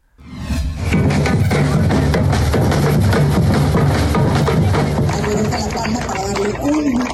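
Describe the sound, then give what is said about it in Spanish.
Dozens of residents and visitors applaud steadily for several seconds in farewell to the iconic palm tree on a roundabout of Paseo de la Reforma, Mexico City, a dense wash of clapping mixed with cheering voices and some music, starting abruptly and holding loud throughout. “Entre aplausos, homenajes, abrazos, rituales de agradecimiento, música y fotografías, decenas de capitalinos y visitantes despidieron a la icónica palma, ubicada sobre una de las glorietas de Paseo de la Reforma, en la Ciudad de México”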